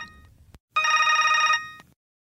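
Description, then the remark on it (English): One loud burst of a telephone ringing on an outgoing call as Bigler tries calling Paige the next day, a warbling electronic trill lasting under a second, framed by sharp clicks before and after, with no one speaking. “So the next day, he tried calling her.”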